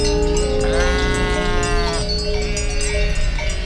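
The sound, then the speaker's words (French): A sheep lets out one loud, wavering bleat lasting just over a second, over a steady bed of farmyard noise with no talking. “Où, quand on a un super plan bouffe, on belle fort pour prévenir les copines.”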